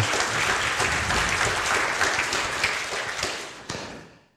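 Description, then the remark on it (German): A church audience claps steadily for a twelve-year-old boy who is preaching, about four seconds of a dense crackle of many hands at even loudness, thinning out with a few last scattered claps before fading to quiet. “Könnt ihr ruhig einen Applaus geben.”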